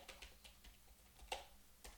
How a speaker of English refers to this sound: first name, edit your first name, type in text. Okay, I'm typing my first name.